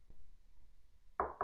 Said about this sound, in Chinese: 突然有人敲门，我立即警觉了起来。